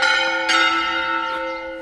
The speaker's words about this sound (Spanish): El tema de las campanas de la iglesia.